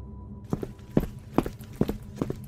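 Quick, heavy footsteps of a stepfather hurrying down a staircase, five or six hurried steps in an uneven rhythm, each a dull low knock with a sharp edge, and no voices.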